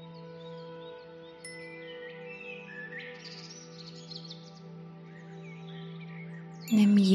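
birds singing

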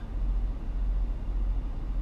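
car interior road noise

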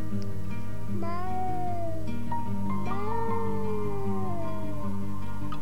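cat meowing

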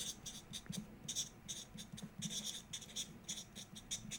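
pens writing on paper

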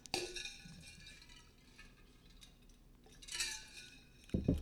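glasses clinking

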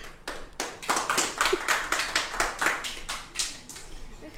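audience clapping

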